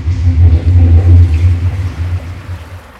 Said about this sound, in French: ça, c'était une taque sur laquelle vient de rouler une voiture. c'est assez désagréable quand on y travaille.